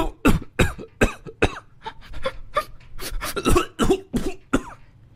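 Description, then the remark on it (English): A person imitates a man whimpering so hard that he makes himself cough: a rapid series of sharp, breathy coughs and strained gasps, fairly loud, with no speech. “So he was doing like that whimpering and then coughing thing because he was whimpering so hard that he was making himself cough.”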